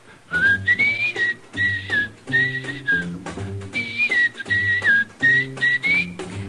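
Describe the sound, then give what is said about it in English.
A person whistles a bright, lilting melody in short phrases, the clear tone gliding up and down over a steady rhythmic instrumental backing, introduced with jazz musician and arranger Bobby Haggart. “How about whistling along with him?”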